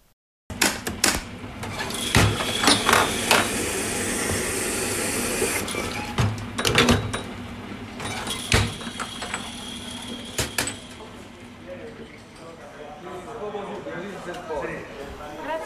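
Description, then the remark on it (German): A busy coffee bar in Italy at breakfast time: an espresso machine hisses and hums steadily while cups and saucers clink sharply now and then, with customers chatting in the background. “Also, ich bin in die Bar meines Vertrauens gegangen, die glücklicherweise gleich unter meiner Wohnung war, und habe dort gefrühstückt.”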